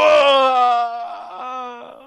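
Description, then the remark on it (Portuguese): A long, drawn-out voiced groan of a game character dying as it loses its life, loud, starting strong and sagging lower in pitch before trailing off into a weaker, wavering moan. “Agora morrendo, perdeu a vida, tá?”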